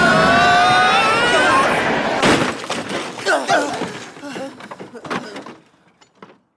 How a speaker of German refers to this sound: Mit voller Wucht knallte die Lore gegen den Prellbock.